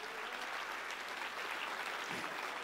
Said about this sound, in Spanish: Si ese eres tú dándole un aplauso al Señor, dáselo mejor. Dáselo mejor. Dáselo mejor.